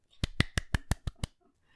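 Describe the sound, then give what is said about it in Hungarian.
A short burst of seven quick, evenly spaced hand claps, sharp, like one person clapping briefly in applause, with no voices alongside. “Igen, és itt egy tapsot szeretnék”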